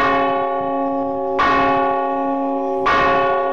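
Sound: church bells pealing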